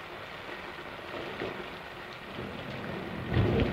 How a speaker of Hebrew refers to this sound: כשהרכבת נעלמת, מתחיל לרדת גשם, ואנחנו שומעים רעמים.